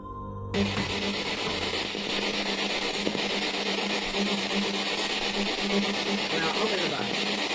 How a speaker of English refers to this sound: What's that? It sounded like someone farted in the spirit box. Did you hear that?